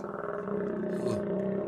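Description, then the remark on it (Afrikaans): A loud stomach growl from hunger, a continuous low, gurgling groan lasting under two seconds with a slight rise and wobble toward the end, heard on its own. “Jammer ouens, dis my maag wat so raas.”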